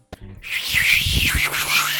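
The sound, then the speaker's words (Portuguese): A dial-up modem connecting: a brief click and low tones, then a loud, harsh hissing screech with a wavering, warbling upper whine that fills the two seconds, with no voices. “Uai, sabe quando você ia conectar na internet antigamente e parecia que você tava batendo a panela em alguma coisa, que tava um barulho estranho?”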